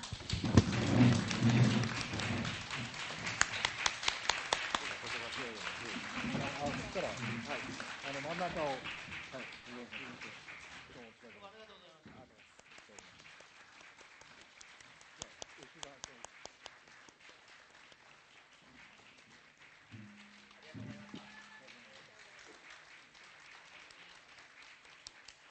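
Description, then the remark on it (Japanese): Loud, sustained applause from an audience sending off election candidates as they leave through the middle of the venue fills the first ten seconds, then thins to scattered clapping and a few sharp claps, with faint background noise and murmuring toward the end. “ここで退出をされます、え真ん中を通って退出をされますので皆さん盛大な拍手でお見送りいただければと思います”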